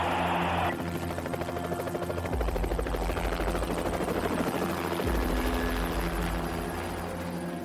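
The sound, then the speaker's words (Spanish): A helicopter roars loudly, its rotor thumping in a steady rapid pulse over a deep engine drone, the low rumble swelling partway through as it descends. “El helicóptero descendió y todos fuimos testigos de una terrible visión.”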